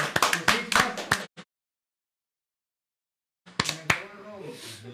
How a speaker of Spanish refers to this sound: Un aplauso, un aplauso.